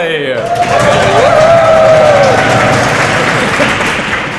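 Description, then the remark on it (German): A live audience of about 200 people applauds loudly and steadily, dense clapping filling the space, with a brief whistle or cheer rising above it early on and voices mixed into the noise. “wir haben hier Publikum dabei”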